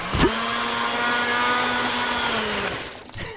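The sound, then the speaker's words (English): A blender whirs up to speed with a rising whine, then roars steadily at full power for about three seconds before cutting off. Loud, with no talking. “Don't take the lid off the blender when it's on full speed.”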